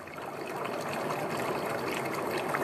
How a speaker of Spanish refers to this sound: A la orilla del río, Alicia y su gatita escuchaban la historia que Ana leía.